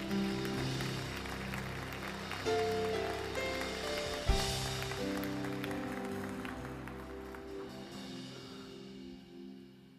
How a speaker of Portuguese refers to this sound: Queria que você aplaudisse o nome de Jesus.